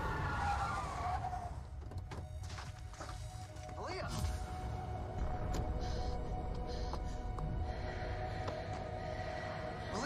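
A car roars loudly and steadily for the whole stretch, its engine rumbling while tires squeal and scrape intermittently, with a few sharp knocks along the way.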